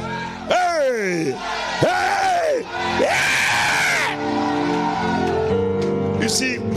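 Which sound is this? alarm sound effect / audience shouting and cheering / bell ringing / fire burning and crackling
audience shouting and cheering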